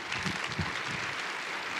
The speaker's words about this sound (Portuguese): Aplaude mais uma vez, vale a pena. Bem-vindo.